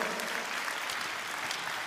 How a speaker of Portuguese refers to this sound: E agora eu peço uma salva de palmas para você, mais forte ainda, para aqueles que vão começar hoje a servir, que vão começar hoje a dizimar, vão começar. Palmas para esses irmãos, porque eles vão fazer parte também deste time vencedor.